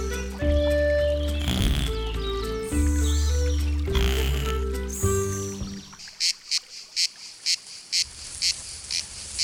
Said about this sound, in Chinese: 哇，夏天的风吹过树林，吹起来真的好舒服哦。蝉叫的声音也好像合唱团在唱歌给维多叔叔听。